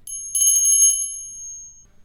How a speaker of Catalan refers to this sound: Cada cop que soni la campaneta haureu de dir el seu nom